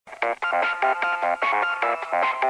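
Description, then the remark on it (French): A phone ringtone plays a quick, repeating melodic pattern of bright electronic tones, loud, with no one speaking over it. “Pardon pour le téléphone.”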